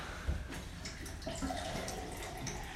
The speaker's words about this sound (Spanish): Ahí déjame sirve mi agua, mira. De la llave.